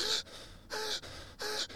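Quick, breathy panting in and out through the mouth, demonstrating flight-mode breathing: a rapid rhythmic run of sharp inhales and exhales, about five bursts in under two seconds, with no talking.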